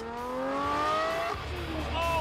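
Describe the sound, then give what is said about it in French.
A Lamborghini sports car engine roars loud, its pitch climbing steadily as it accelerates on a highway closed for the occasion in Abu Dhabi, through speeds of 225, 240, 255 and 270, briefly dropping at a gear change before rising again. “faites donc un tour avec Richard Hammond de l'émission britannique Top Gear alors qu'il s'élance sur une autoroute fermée pour l'occasion à Abu Dhabi”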